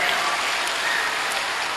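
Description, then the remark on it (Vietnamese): A crowd at a 2009 summer camp applauding in thanks to the monks and nuns who organized it, a dense and steady wash of many hands clapping at once, sustained at an even, fairly loud level throughout. “và cuối cùng là cảm ơn tất cả quý thầy quý sư cô trẻ đã phải rất là vất vả suốt mấy tháng trời để tổ chức thành công hội trại mùa hè cho tất cả các cháu có mặt tại đây xin dành tràng pháo tay để biết ơn”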